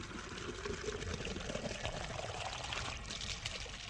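Water pours steadily from a fountain in Lucania, Italy, into a water jug, a continuous splashing, gurgling stream that stays even in level throughout, with no voices.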